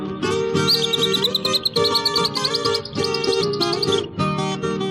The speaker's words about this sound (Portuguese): Quando chega a madrugada, na mata se ouve a zoada, do cantar dos passarinhos.